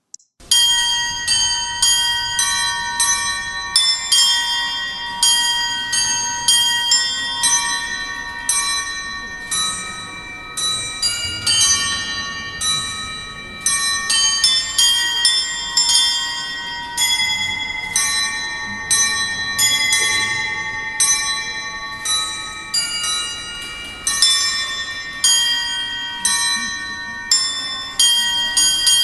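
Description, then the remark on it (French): A cathedral carillon clock plays its bell melody, bright tones struck one after another in a steady rhythm, each ringing out and fading, loud with no voices. “je vous rejoue la mélodie de mon carillon une fois”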